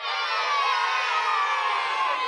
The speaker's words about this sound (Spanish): Te damos un fuerte aplauso de despedida.